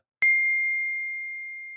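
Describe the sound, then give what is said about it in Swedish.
Glasses clink once in a toast, a single sharp strike followed by a clear, high ringing tone that lingers and slowly fades. No one speaks. “Hörde jag en skål”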